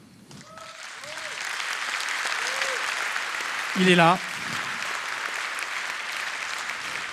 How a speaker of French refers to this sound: Au saxophone ténor, il a été l'un des saxophonistes de …. Veuillez applaudir ….